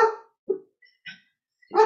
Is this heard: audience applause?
no